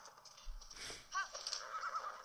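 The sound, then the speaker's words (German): A horse neighs loudly, a shrill, quavering whinny that rises and wavers over about two seconds, with a brief low thump near the start and no talking. “Und ihr lasst jetzt bitte mein Pferd.”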